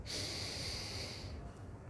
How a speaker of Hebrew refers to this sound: דבר ראשון, כדי לחיות, נושמים, כי בלי נשימה אין חיים. תנשום